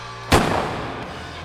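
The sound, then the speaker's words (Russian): A single loud revolver shot cracks out sharply, then rolls away in a long, fading reverberant tail, with no voices around it. “Когда грянул выстрел, я кинулся вон и бежал по темным холодным улицам до тех пор, пока не упал во влажную листву парка, рыдая и размазывая слезы по лицу рукой с зажатым револьвером.”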